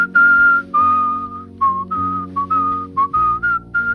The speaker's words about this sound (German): Und da gibt es so einen schönen Whistle-Part. Da kannst du gerne, wenn du Bock hast, würde ich mich sehr freuen, mitwhisteln. Und zwar geht das so.